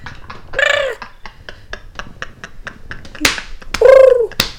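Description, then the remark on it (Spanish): A person imitates a king penguin call, giving two drawn-out, whiny squawks a few seconds apart, with a steady run of soft clicking taps in between. “Pero ¿cómo hacen los pingüinos reales? Pues como así, como un pajarito, supongo. No ¿Cómo, cómo? Imítalo.”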